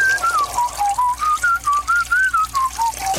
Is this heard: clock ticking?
no